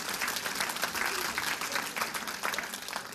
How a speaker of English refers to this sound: Let's give her a round of applause.